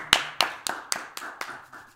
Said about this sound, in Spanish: un aplauso para él.